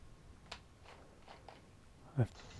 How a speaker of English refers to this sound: I can I can hear the TV down the hallway.